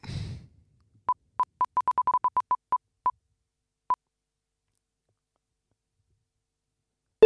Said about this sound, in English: Uh, let's spin the wheel.